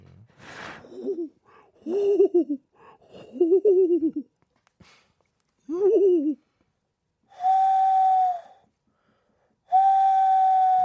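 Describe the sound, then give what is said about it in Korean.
A person imitates an owl hooting in a radio studio: several short, wavering vocal hoots, then two long, steady, whistle-like hoots separated by brief pauses. “부엉이 울음소리가 콸콸콸!”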